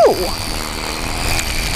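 A lawnmower engine running outside drones steadily throughout, a continuous buzzing motor hum with a faint high whine on top and no change in loudness.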